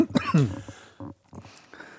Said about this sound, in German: Ich, ja, ich huste. Ich huste. Passend zur Corona-Krise, man darf ja nicht drüber lachen, aber ich muss jetzt als erstes mal husten.